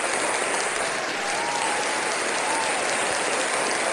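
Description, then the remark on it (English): A crowd applauds steadily and loudly for the whole stretch, a dense wash of clapping with a few faint cheers or whoops rising briefly above it. “Hey, the crowd loves it. The crowd's going wild.”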